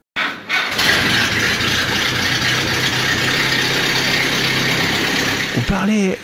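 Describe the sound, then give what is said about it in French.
A Jeep engine runs steadily for several seconds at the Woodward Dream Cruise car parade, a loud, rumbling idle with a rattly texture and a busy outdoor background; a brief voice cuts in right at the end. “Des fans attentifs aussi au, son du moteur, à, sa signature.”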